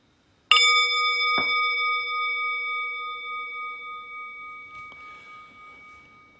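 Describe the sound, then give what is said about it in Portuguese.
A meditation bell is struck with a bright metallic ring to end a period of Zazen meditation, followed by a soft second tap a moment later, then a long, steady tone that slowly fades. No voices are heard. “E daqui a pouco eu vou convidar o sino a soar uma vez para a gente interromper esse período.”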